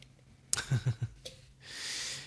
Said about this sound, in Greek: Ναι, χασμουριέμαι.